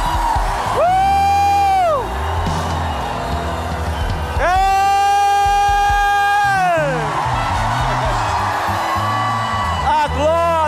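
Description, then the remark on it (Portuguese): A crowd of people shouts and whoops loudly together in two long sustained bursts, with voices rising and falling in pitch over a dense, noisy background of cheering. “Ei, você quer dar um grito?”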